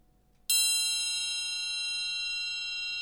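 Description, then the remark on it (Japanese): A single strike on a small, thick metal triangle, its rod about 10 millimetres thick and the triangle about 15 centimetres in size, rings out bright and high, its clear overtones sustaining steadily with only a slight fade over a few seconds, no voices present. “これ7ミリをこれは10ミリぐらいにちょっと太くして、はい、で24センチだった大きさをちょっと小さくして15センチにすると、はい、もしそうなると音色はまた全然変わってきまして、はい、いきますね。”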